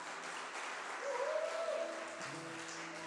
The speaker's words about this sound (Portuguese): Uh, aplauda o Senhor bem alto.